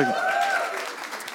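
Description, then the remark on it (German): A short burst of clapping from a small audience, a dense patter of hands lasting about a second, with a voice sounding briefly over its start. “Sollen wir aus der Stars mal kurz klatschen?”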